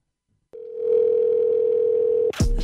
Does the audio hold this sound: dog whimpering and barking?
no